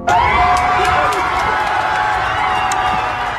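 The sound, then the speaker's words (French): Hundreds of people cheer and shout in relief outdoors in the evening in front of the courthouse in Minneapolis, USA, after Derek Chauvin was found guilty of murder: a dense, steady roar of many voices with occasional sharper cries and whoops rising above it, loud and continuous throughout. “Des cris de soulagement, des larmes, des embrassades, des centaines de personnes ont laissé hier soir éclater leur joie devant le tribunal de Minneapolis aux États-Unis.”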